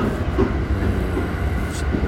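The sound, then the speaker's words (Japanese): Steady low rumble from inside a moving Utsunomiya Line special rapid train in Japan, with a continuous rolling drone and faint rattling of the carriage, fairly loud and unbroken throughout with no voices. “宇都宮駅の列車の中です特別快速でしたね乗ってみたら、えー、次は古賀ということでね割と空いてるんで収録しておりますが”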